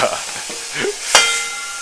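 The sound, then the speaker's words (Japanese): A steady, hissing rush of tap water runs throughout, broad and fairly loud, with one brief sharp clack partway through and no voices. The tap runs as the speaker prepares to boil a large amount of water to cook spaghetti. “今からお湯を沸かそうでもこのねスパゲッティを食べようと思うと結構な量のお湯が必要なんでこれを沸かすのに結構時間はかかりますねこの水道の音もねかなりうるさく入ると思います”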